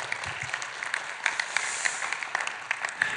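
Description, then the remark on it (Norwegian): A crowd applauds steadily for a few seconds after an announcement of the NRK1 series Guds lærlinger, a dense patter of many hands clapping at moderate volume, with no voices standing out. “Ja, vi kan klappe for det.”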